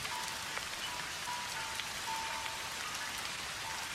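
Steady rain pours down outside a small, quiet temple in Japan, a dense hiss of drops pattering on a hard surface with faint brief tones beneath, continuous and even throughout with no voices.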